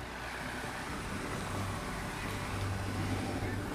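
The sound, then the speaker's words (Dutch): A car goes by outdoors, a steady low engine rumble and broad road hiss that stays fairly even throughout, swelling only slightly toward the end, with no voices. “Even zwaaien naar de auto.”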